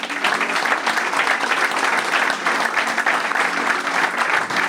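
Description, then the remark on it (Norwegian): Steady, sustained applause from an audience, a dense crackle of many hands clapping at an even loudness throughout, with no voices standing out. “Men en eh, god applaus”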